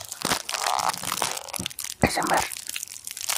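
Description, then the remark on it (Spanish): Crinkling of a plastic wrapper, played as ASMR: a continuous crackly rustle with sharp crunchy bursts, steady and fairly soft, with one brief louder snap partway through and no talking. “Nos despedimos con eh, unos bonitos este, sonidos a envoltura. Una CMR.”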